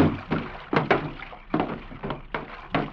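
Water sloshing and splashing in repeated surges against a canoe's hull, with occasional knocks, fairly loud, as the canoe pulls up to a wharf at dusk.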